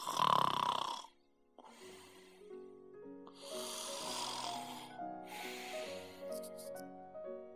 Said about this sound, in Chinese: 一个做梦的小孩儿，在打鼾的老奶奶身上，老奶奶在温暖的床上，床在打瞌睡的房子里，房子里每个人都在睡觉。